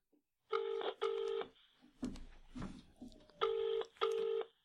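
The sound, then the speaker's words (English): A telephone rings twice in a double-burst pattern, clear, then after a short gap of scattered clicks and handling noise the same double ring sounds again, as someone is being phoned. “we're actually just going to ring him straight off the Cool. bat.”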